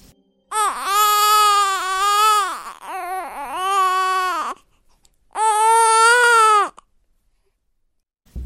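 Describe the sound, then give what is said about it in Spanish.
An infant cries eerily in long, wavering wails from a hut in a remote Indigenous community of the Aztec empire in Mexico, first a sustained sob, then choppy broken cries, a pause, and one more drawn-out wail. The crying is loud, with no talking. “El tétrico llanto infantil despertó a los pobladores de aquella apartada comunidad indígena del imperio azteca, que alarmados corrieron hacia la choza donde provenían los lloriqueos.”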